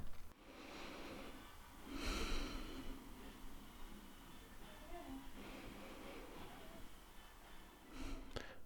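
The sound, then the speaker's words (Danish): A few slow, deep breaths taken by a person sitting with eyes closed in front of a mirror in an entrance hall, soft airy inhales and exhales spaced several seconds apart with quiet stretches between them and no talking. “Tag et par dybe vejrtrækninger.”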